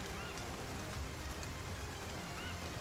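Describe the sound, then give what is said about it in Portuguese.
Steady rain hisses evenly throughout, a dense wash of patter with a low rumbling undertone and no pauses or voices. “Aproveitar que tá chovendo e tem. E tem árvores.”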